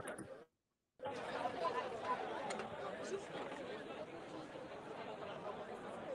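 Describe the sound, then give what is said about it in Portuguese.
A loud, dense wash of crowd chatter fills a stadium, many voices blending into a steady roar after a brief moment of silence near the start. “Porque, mano, tá mó barulheira aqui. Eu vou mostrar o estádio.”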